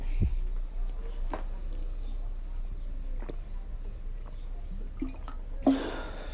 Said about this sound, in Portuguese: Calma aí, deixa eu beber um pouquinho de água aqui.